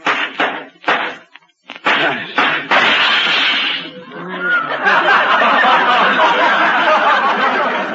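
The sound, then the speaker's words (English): Several sharp blows with a silver pitcher, pounding a loose nail back in, strike in a halting rhythm, then a loud crash as a hand slips and window glass shatters, followed by a long, dense spill of crackling, tinkling fragments. “My hand slipped. Broke the window.”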